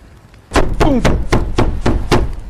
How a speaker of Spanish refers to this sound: Toda la cabaña se estremeció y Harry se enderezó mirando fijamente a la puerta. Alguien estaba afuera, llamando.